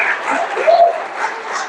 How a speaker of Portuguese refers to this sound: Para ele. Para quem é o aplauso? É para ele.